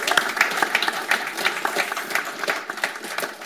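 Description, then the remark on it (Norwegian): An audience applauds to welcome footballers Erik Hoftun and Bent Skammelsrud and author Thomas Karlsen at a book celebration, a dense patter of many hands clapping at once with a few sharper individual claps standing out, sustained at moderate loudness throughout. “Jeg lover å klappe.”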